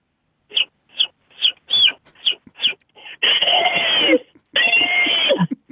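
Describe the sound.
A single voice doing an impression of a chick, an elephant startled by the chick, and a woodpecker mocking the elephant: about seven quick high chick-like peeps, then two long, loud, harsh trumpeting blasts, ending in a mocking woodpecker-style call, all performed alone.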